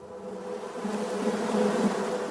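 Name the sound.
bees buzzing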